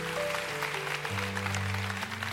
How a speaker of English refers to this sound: Come on, if that's you, would you put your hand up? Let's honor you today, veterans, active duty. Come on, first respond. Come on, clap a little bit better.